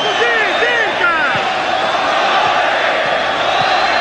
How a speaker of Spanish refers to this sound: Gritos de ola por los hinchas de Sporting Cristal.